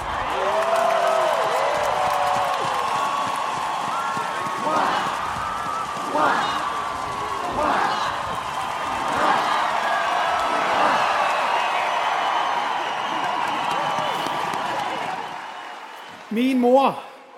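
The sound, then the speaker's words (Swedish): A large crowd gathered to welcome Denmark's new king cheers and applauds as King Frederik X comes out onto the balcony, steadily for over fifteen seconds, a dense wash of clapping with scattered shouts and whoops rising above it, before it cuts off abruptly. “Och nu kommer kung Fredrik X ut på balkongen och möts av folkets jubel.”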